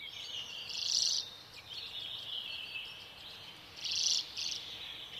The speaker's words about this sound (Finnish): Se oli kovin tuttu, mutta samalla kovin outo. Mitä ihmettä? Minunhan pitäisi tuntea tuo laulaja ja, ja mitään ei tunnu tulevan mieleen. Samaa pohti vieressä ystäväni. Hän kuin hämmästyneenä totesi linnun olevan urpiainen.